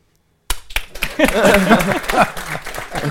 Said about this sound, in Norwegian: klapper for seg sjøl.